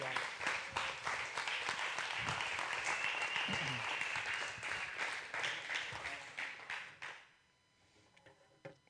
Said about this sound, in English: It does deserve like a real serious round of applause.